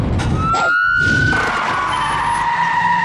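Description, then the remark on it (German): A police siren holds a steady, slowly falling tone, loud, over a dense roar of car noise and tyre skidding; no one speaks. “Na los, Sirene.”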